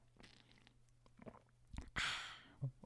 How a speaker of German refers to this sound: Ich, ich, ich bin auch gerade dem Thema nämlich gerade schon verfallen, weil ich schlürfe gerade hier an etwas. Ich weiß nicht, ob man das hören kann, oder?